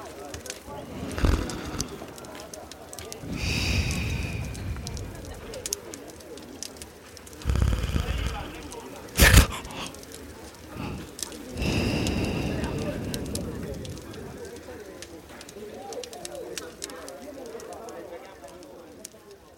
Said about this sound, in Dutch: Dan zakt zijn kin weer op zijn borst. En is alleen het geluid van zijn gesnurk nog hoorbaar.